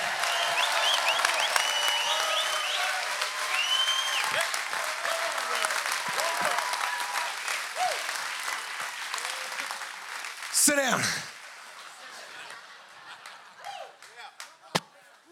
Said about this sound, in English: Give the Lord a clap, but a shout like you got energy.